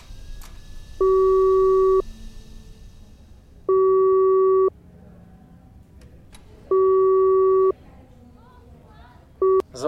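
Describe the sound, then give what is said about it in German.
A two-note call-waiting tone on a phone line, signalling an incoming call from Flo, sounds in steady one-second bursts, repeating about four times with short gaps, over a faint background murmur and low rumble between the beeps. “Warte mal, Flo klopft an. Ich leg dich mal eben zur Seite.”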